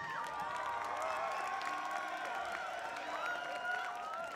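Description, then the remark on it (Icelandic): A crowd at a concert applauds and cheers steadily for a guitarist coming on stage, with dense clapping under a wash of shouts and high whoops, staying loud and sustained throughout. “Ég ætla að byggja ykkur um að klappa rosalega vel fyrir gítarleikarannum”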